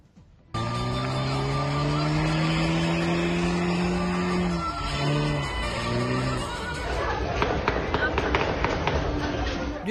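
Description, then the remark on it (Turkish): A car's tires squeal loudly and continuously for several seconds as tires are burned in a wedding convoy in Bursa, Turkey, the shrieking pitch wavering, before giving way to engine roar, crowd noise and sharp crackling pops. “Bir düğün konvoyunda havaya rastgele ateş açılırken bir diğerinde lastik yakıp çifte telli oynadılar.”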